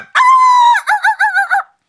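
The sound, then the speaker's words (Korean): A person loudly mimics a rooster's crow: one long, held note followed by four quick, warbling bursts, with no other talking. “닭소리는 그렇게 내는 거 아니에요? 어떻게?”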